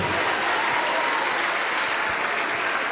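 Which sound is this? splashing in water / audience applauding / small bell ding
audience applauding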